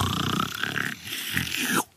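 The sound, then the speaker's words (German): A voice imitates a long, drawn-out snore, a rough, rasping growl that stretches for nearly two seconds, dips briefly midway, then swells again before cutting off abruptly. Fairly loud. “Manchmal so alle drei Schnarcher hast du so welche, die ziehen sich so übel lang, die sind so.”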